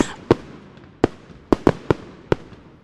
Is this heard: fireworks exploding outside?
yes